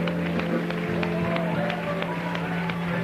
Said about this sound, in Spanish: Den un aplauso a Jesús. Aleluya.